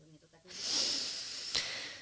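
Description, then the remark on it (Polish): A deep breath: a long airy rush of air drawn in and let out for over a second, following a brief faint murmur of voice, with a small click near the end. “Wdech, wydech. Oddycham głęboko, bo czuję, że ulga powoli zaczyna na mnie spływać.”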